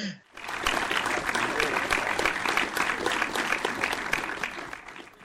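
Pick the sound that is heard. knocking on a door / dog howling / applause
applause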